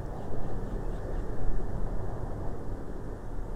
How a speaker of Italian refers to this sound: Si sente solo il vento nient'altro. Silenzio, calore e luce.